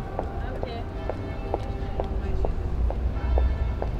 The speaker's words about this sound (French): Et une dame avec des talons.